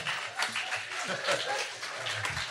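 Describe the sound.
A crowd applauds steadily throughout, a dense wash of clapping with scattered cheers and voices mixed in, at moderate volume.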